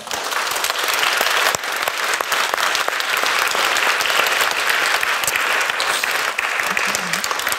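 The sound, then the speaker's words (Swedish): An audience at a university event applauds the panel of speakers, dense overlapping claps forming a loud, even wash of sound that holds throughout without pause. “En applåd till dessa.”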